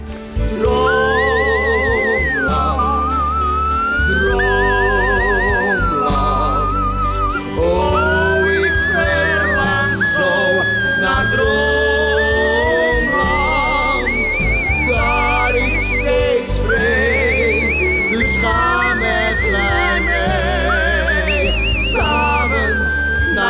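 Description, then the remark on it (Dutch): A high, bird-like human whistle carries a continuous flowing melody over loud backing music with a steady bass, sliding and trilling between notes for the whole stretch, with no talking. “Heel hoog. Jij bent een beetje de Pavarotti onder de vogel.”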